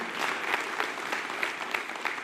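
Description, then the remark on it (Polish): An audience claps together in a steady, dense patter of many hands, joining in after one girl began clapping, sustained for a couple of seconds with no voices over it. “Słuchajcie, jedna dziewczyna klaszcze, pomóżcie jej, no bo ona się zawstydzi, jeżeli rozumiecie.”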